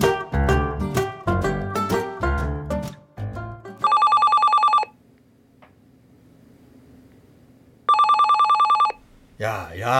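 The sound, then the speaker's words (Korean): A telephone rings twice and nobody answers it, each burst a loud, bright electronic trill lasting about a second, separated by a quiet pause. Voices are heard before the first ring and after the second. “야, 왜 아무도 전화를 안 받냐?”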